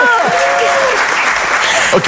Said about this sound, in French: Les fourmis sont nos amis. On applaudit les fourmis. Bravo.